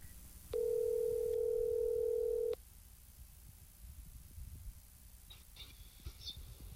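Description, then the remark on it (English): A single steady electronic phone tone rings out loudly for about two seconds as a phone call is placed to Jeff Riger, then stops, leaving low background hiss with a few faint clicks near the end. No one speaks. “Let me get my phone and call Riger.”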